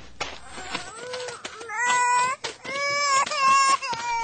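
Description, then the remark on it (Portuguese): A baby cries in loud, strained wails that rise and fall in pitch, several sustained sobbing bursts with brief catches of breath between them. “O bebê acordou? Deve estar com fome.”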